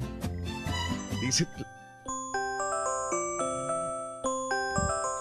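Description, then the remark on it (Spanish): After a moment of talking, an alarm clock ringtone begins: a gentle electronic melody of sustained, chiming notes stepping up and down at a steady, moderate volume. “este es este mi despertador, mira”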